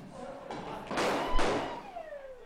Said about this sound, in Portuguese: Mas o pipoco tá comendo. Não sei se o pessoal em casa tem um som. Aí é tem, O pessoal em casa tem um som. Tá ouvindo aí o pipoco?